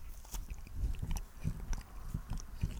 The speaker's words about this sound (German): Ja, und essen Brot. Achtung, so dann und Brot hört sich dann so an.